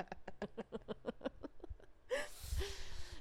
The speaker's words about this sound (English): Don't do that. Don't yawn.